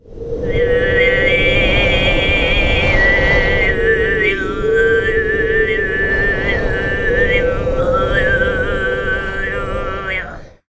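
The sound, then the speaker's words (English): Tuvan throat singing in the khoomei style, imitating the wind: a steady, loud droning voice, a fundamental with buzzing overtones that slowly shift and rise like whistling gusts, sustained without pause for about ten seconds. “It's often used to imitate the wind.”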